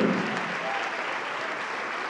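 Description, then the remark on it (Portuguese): A church audience applauding at the pastor's urging during an altar call as more people come forward, a steady wash of many hands clapping at an even, fairly loud level throughout, with no voices standing out. “Vamos aplaudir mais, aplaude mais, igreja, aplaude mais.”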